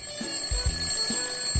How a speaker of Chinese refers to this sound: 早晨时光就像其他要上学的日子一样，闹钟总是一大早就响得震耳欲聋。